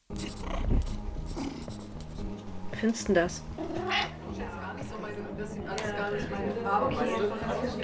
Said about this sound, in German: Das war der neue Jingle und ich bin schon mega aufgeregt, wenn ich den das erste Mal dann in zwei Wochen einbauen werde.